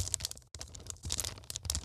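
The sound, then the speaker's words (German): Crinkly plastic baggie rustling as model terrain pieces are pulled out of it, a dense, crackling texture of bright, irregular crackles with a brief pause midway, moderately loud and with no talking. “Lehnt euch zurück und genießt das Knistern.”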